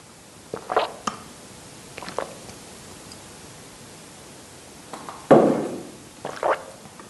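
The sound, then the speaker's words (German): Someone takes several small sips of water, short soft slurps and swallows arriving in little clusters with pauses between, over a steady background hiss and no talking. “Ich trinke gerade ein bisschen Wasser.”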